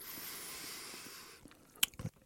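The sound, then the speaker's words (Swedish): A wet, squishy mouth sound, with a sharp click and a soft smack, as someone takes a bite of salted fish roe from a spoon, after a stretch of quiet hiss. “Så jag tänker, du har fått en, en praktfull sked en av den här salta rommen.”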